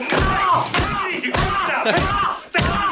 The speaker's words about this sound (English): He actually, this, this cop picks him up and starts slamming his head.